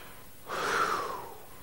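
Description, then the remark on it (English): A crowd of people draws in one long, deep breath together, a soft breathy rush that swells for about a second and then fades, with no talking. “Would you go with me and get a good breath in?”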